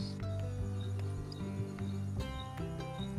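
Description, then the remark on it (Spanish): Faint crickets chirp in short, spaced bursts over a steady, droning low tone that fills the background. No one speaks. “Y, lo bueno, nos callados y, suenan los, grillos atrás.”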